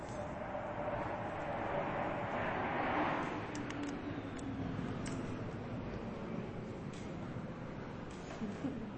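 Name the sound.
airplane flying overhead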